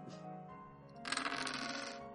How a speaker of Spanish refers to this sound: Tiramos, ¿no? Otra vez estiramos. Y ahora os digo, ¿vale? Eh, igual, de 2 a 4 dados y a ver qué os sale.